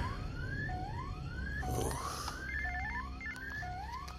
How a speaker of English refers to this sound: Did you not hear the alarm going off?